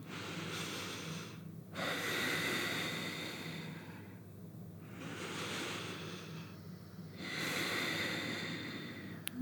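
Slow breaths drawn in through the nose with the mouth closed, a few long airy inhales and exhales in a steady rhythm, with a faint snorting rasp and no talking.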